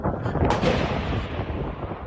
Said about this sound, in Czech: Policisté použili proti pachateli střelnou zbraň zvenku, to znamená, jak pálil z toho ochozu, tak my jsme opětovali střelbu eh, ze spoda.